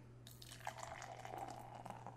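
A can cracks open with a sudden hiss, then liquid pours in a steady, bubbling stream for a couple of seconds, over a faint low hum and with no voices.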